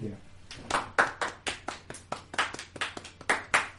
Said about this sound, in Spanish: Y lo aplaudimos. Y lo aplaudimos. Desde ahora te aplaudimos, señor incógnito. Te aplaudimos de muy lejos para que no se suma mucho el volumen del micrófono.